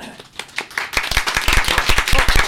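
Applause sound effect, beginning with a few scattered claps and quickly swelling into dense, steady clapping from what sounds like a sizable crowd, bright and lively throughout.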